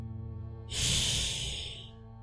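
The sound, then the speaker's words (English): An animal in a forest lets out a single sustained, breathy hiss at something, lasting just over a second, sharp, over a steady low background hum. “was hissing at something.”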